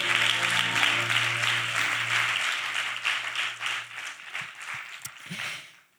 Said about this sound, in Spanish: Y ese aplauso para nuestro Señor Jesucristo.